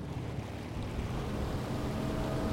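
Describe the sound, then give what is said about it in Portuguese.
A boat motoring along a river, a steady low engine rumble mixed with the broad wash of water and some wind, continuous with no voices. “você é muito melhor guiando um barco do que um carro.”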